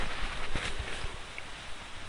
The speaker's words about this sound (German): So, falls ihr so eine Rose mal mitbasteln wollt, dann faltet ihr die Serviette jetzt auseinander